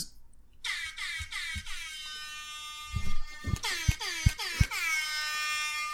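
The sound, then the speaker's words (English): A loud, blaring air horn played from a phone sounds in repeated bursts, stacked with harsh harmonics and punctuated by low thumping hits, with a slightly tinny, phone-speaker quality and no talking. “But uh, that's what I needed an air horn. Mm-hmm. An air horn. I got one.”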